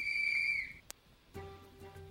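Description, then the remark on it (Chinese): A magic whistle blown by the Smurfs in a Smurfs story, one steady, high-pitched note for under a second, sending all the Smurfs back to their village. A sharp click and a soft, shimmering chord follow, with no voices. “哨声一响，所有蓝精灵都被送回了村子。”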